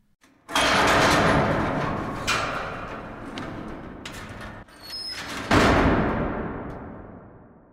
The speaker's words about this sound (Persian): نگهبان در باز کرد در اصلی با صدای مهیبی باز شد